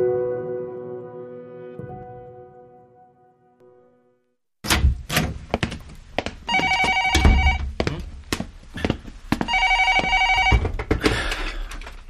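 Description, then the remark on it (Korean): A telephone bell rings in two loud, rattling bursts, mixed with scattered thumps and knocks, after a steady tone fades away into silence at the start. “아, 이제 받는구만.”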